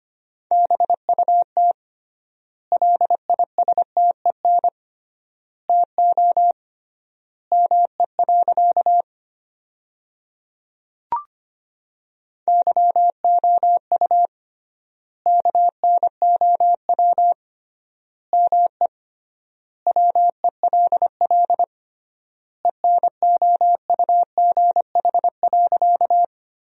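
Morse code sent at about 25 words per minute, keying sentences built from the 400 most common words with triple word spacing: a clear, steady beep in quick dots and dashes, with clusters of characters separated by noticeably long silent gaps, and no voices.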